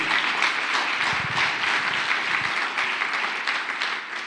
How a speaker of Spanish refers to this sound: Así que déle un fuerte aplauso al Rey.